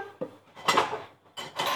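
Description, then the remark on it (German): Kitchenware clatters and clinks in a few bursts: dishes and utensils knocking together as things are shifted around while someone fetches a cutting board to cut chocolate, with no talking. “Ich glaube, ich nehme mir einen Schneidebrett.”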